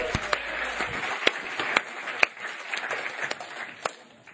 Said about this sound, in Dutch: Let's give the band a hand. Laten we de band ook een applaus geven.